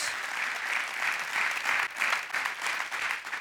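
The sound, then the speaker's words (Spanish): An audience at a church service claps together in sustained, dense applause to Christ Jesus at the preacher's call, a steady wash of many hands at an even level that swells slightly in waves, with no voices standing out. “Los que crean, denle un aplauso a Cristo Jesús.”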